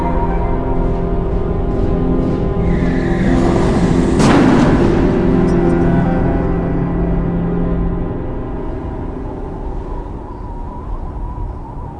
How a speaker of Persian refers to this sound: به نظرم این مکانیک جام سرمان یه کار با ماشین کرده یه کاری کرده آره صدا موتورش طور شده ها